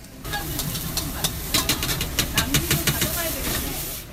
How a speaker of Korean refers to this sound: 커다란 프라이팬에 올려진 재료들이 곧바로 기름을 두른 팬 위에 익혀져서 접시에 담깁니다. 양, 파에 브로콜리, 양배추, 고추, 당근, 저거는 뭐야? 케일? 국수랑 같이 볶아가지고 한 접시가 나오는데요.